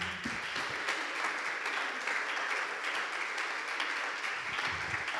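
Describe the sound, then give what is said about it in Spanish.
A church audience breaks into sustained applause for the Lord at the close of a sermon, a dense, steady wash of many hands clapping together for several seconds with no clear individual beats, alone without talk over it. “¿Por qué no le da un fuerte aplauso al Señor?”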